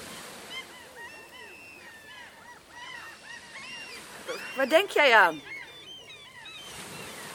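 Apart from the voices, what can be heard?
sea waves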